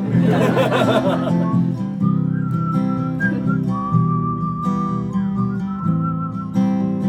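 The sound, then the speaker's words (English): A crowd whistles a meandering melody together, high tones wavering over a dense murmur of voices, with some laughter mixed in near the start. “Would you whistle with us?”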